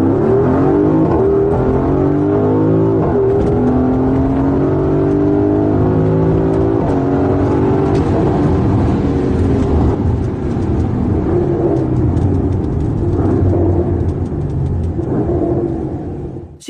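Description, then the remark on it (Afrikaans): The engine of a powerful 349-kilowatt, 600-newton-meter car with an 8-speed automatic gearbox roars loudly, revving up through rising harmonic sweeps as it accelerates, with a deep continuous rumble sustained for the whole stretch and no voices. “From a 349 kilowatt 600 newton meter 8-speed automatic pure bliss machine.”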